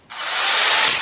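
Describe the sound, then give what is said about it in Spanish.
A power drill used in renovation work starts abruptly and runs steadily, a loud, gritty whirring that builds slightly in intensity for about a second, with no voices. “Este es el ruido de las reformas.”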